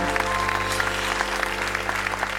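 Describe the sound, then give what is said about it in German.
Steady applause from a studio audience welcoming a female colleague as she comes on: a dense wash of many hands clapping at an even, fairly loud level throughout, with no voices over it. “Und jetzt kommt meine liebe Kollegin Ruth Hofmann, die auch einen donnernden Applaus kriegt”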